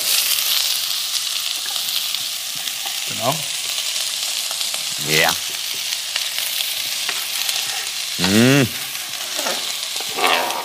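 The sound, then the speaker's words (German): Broccoli and peppers frying in a pan, giving a steady hiss of sizzling throughout, with a few brief spoken interjections from a person cutting in over it. “Brokkoli und Paprika schön ähm, anbraten. Und dann Zwiebel und nach so ein, zwei Minuten Zwiebel und Knoblauch hinterher.”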